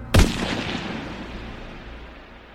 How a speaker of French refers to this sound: Fèche, sans lunettes, panique, se retourne et tire à travers la poche de son imperméable.